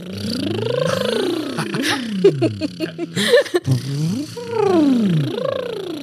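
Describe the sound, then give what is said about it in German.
A voiced lip trill, done as a voice exercise, sweeps up and down in pitch like a siren, buzzing continuously, breaks into a few short bursts of laughter, then resumes with another rising and falling glide. “Und jetzt mal mit Stimme, so wie eine Sirene.”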